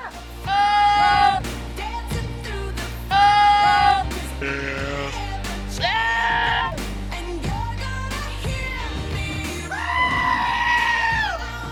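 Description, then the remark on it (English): A goat screams in shrill, high-pitched bleats, several loud piercing cries in a row with brief gaps, with no talking over them. “I just want the goat with that high pitched one.”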